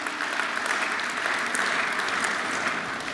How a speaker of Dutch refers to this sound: Geef God een groot applaus.